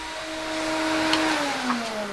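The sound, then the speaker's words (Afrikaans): A vacuum cleaner drones steadily, a loud whirring motor whine over airy rushing noise, its pitch sagging slightly toward the end. No one speaks. “Wag, jy's dalkie stofsuier.”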